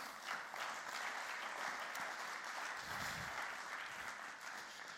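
Steady audience applause as a church's communication lead is called onto the stage: a dense wash of many hands clapping that holds at an even, fairly loud level for the whole stretch without any voices over it.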